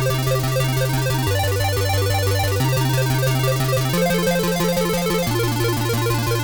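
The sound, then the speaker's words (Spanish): A rapid chiptune-style arpeggio in C minor, notes flickering too fast to count over a steady bass line, shifting through several chords. Loud, buzzy and continuous, with no voices. “Si yo cojo este arpegio de Do menor y lo acelero muchísimo, o sea, pongo un montón de notas en un segundo y luego voy cambiando de acorde.”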